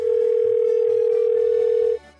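A steady telephone dial tone hums loudly and continuously for about two seconds before a call is made, then cuts off abruptly, leaving faint background sound.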